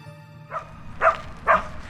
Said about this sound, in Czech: My budeme mít na svatbě 11 psů, tak tohle je taková zkouška.